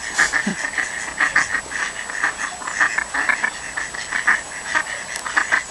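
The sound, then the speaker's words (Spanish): A flock of ducks quacking in the Parc de la Tête d'Or on a cold Monday, 15 February, while being fed old bread: a busy, steady chorus of short nasal calls overlapping in quick, uneven bursts throughout, moderately loud, with no voices. “El sonido de los patos en el parque La Tête d'Or.”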